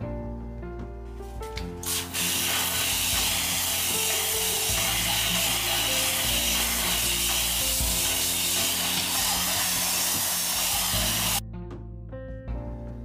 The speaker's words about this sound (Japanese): これは高圧洗浄機の先端部分をブラシに変えて塀のところをゴシゴシと洗浄しているところですね思った以上に綺麗に落ちて広範囲を洗浄するにはこのブラシを使うのは効率的だなと思いました